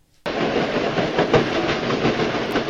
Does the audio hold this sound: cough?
no